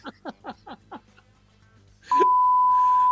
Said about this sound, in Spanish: Sí, sí, ponele, ponele ahí el pitido porque no se puede contar lo que está pensando pensando.